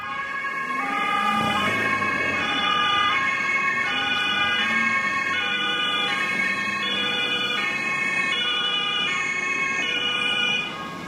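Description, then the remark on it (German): Emergency sirens of the convoy delivering the defendant to a court trial wail continuously in a steady, repeating two-tone pattern, loud, with engine and road noise underneath and no talking. “Mittlerweile haben ich und andere, die regelmäßig beim Prozess sind, die Sirenen so oft gehört, die Anlieferung des Angeklagten so oft erlebt, dass es nicht mehr aufregend ist, nichts Besonderes mehr.”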